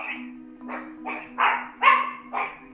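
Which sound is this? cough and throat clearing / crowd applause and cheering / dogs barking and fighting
dogs barking and fighting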